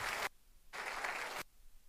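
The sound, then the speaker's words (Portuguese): Two short bursts of audience applause for a female comrade, a brief flurry of clapping that cuts off, then a longer round of many hands clapping together, heard without any voices. “Uma salva de palmas bem forte para a companheira, hein? Mais forte.”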